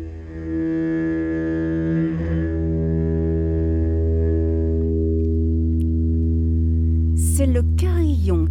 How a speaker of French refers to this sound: un son de glace harmonica. Le ré est très faux. Quant au mi bémol, il ne demande qu'à se rapprocher du do, le do du si.